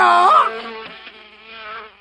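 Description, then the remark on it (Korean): A honeybee buzzes in a steady, droning hum that swells and dips in pitch for about two seconds, loud at first and then fading slightly, with no talking. “사르사르 사르캐치우 꿀벌로 변신!”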